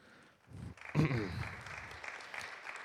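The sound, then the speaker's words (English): Audience applause for the speaker's wife: a steady wash of many hands clapping for the whole stretch, with a short voiced cheer rising out of it near the start, then clapping continuing at an even level. “That applause is for her because she deserves that one.”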